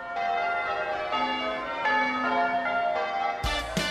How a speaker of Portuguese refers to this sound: Os sinos espalham alegria, pensaram as gêmeas. E não só, porque também podem espalhar mistérios.